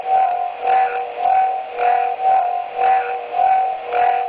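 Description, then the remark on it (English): A steady electronic tone put through a Marshall Time Modulator, with a rhythmic, phased whooshing pulse sweeping back and forth about twice a second, a sci-fi scanning effect for the eye light of a helmet. Loud, with no voices. “And what I do is I put it through a time, Marshall time modulator, so it go like that.”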